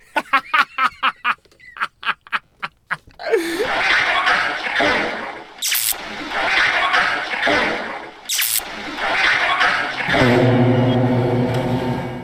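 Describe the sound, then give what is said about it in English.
Two fart sounds in turn: first a rapid, sputtering string of pops, then a longer, rougher, noisier blast that ends in a buzzing, tonal squeak. “listen now as I make a comparison of two farts and see which one is the EVP.”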